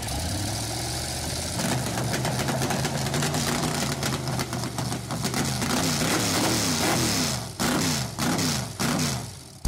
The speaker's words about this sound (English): Gentlemen, start your engines.